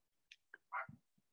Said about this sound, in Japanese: うん、今度今度犬が鳴いてるし。本当に。